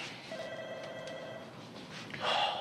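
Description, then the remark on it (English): A telephone rings with a steady electronic trill, sustained tonal bands holding for over a second, then a brighter burst of ringing near the end, clear with no talking; a late-night call to Zach's dad placed from Zach's brick mobile phone. “And Zach quickly comes up with a plan to have Lisa pose as her mom and call Zach using Zach's or call Zach's dad using Zach's brick mobile phone.”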